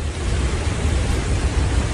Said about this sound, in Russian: Гигантские волны. Гигантские. А, ветер сильный. И вот, это раз волны.